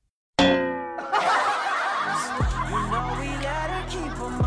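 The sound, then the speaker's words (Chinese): A voice imitates a single bright ding like a text message notification that salary has been paid, a short sustained tone, followed at once by loud audience laughter that continues to the end. “就叮，哎，发工资了。”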